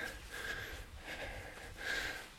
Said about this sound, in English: Pardon me on this slope, by the way. I'm puffing away.